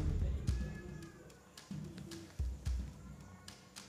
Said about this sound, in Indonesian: Lagi-lagi hadirin ribut dan saling bergunjing seperti di warung kopi. Lagi-lagi Bapak Hakim yang mulia mesti mengetuk-ngetuk palu supaya orang banyak itu menjadi tenang.